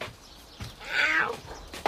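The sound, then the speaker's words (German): A single drawn-out meow from a black tomcat, rising and falling over about half a second, fairly loud, with brief faint noises around it and no talking. “Wirklich witzig, Kater.”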